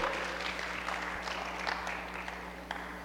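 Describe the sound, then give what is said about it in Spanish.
An audience claps in a steady, dense wash of applause, holding at a fairly even level for a few seconds with a low hum underneath. “Alguien puede aplaudir, alguien puede hacer ruido, alguien puede chiflar esta tarde, decir amén o gritar aleluya o algo para que yo no me sienta tan solito.”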